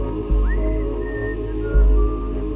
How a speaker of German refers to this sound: Am Ende gab es auch welche, die Schmiere stehen mussten. Das waren dann sozusagen die Handlanger. Da brauchte man nicht viel, weil man musste nur aufpassen und eine Melodie pfeifen.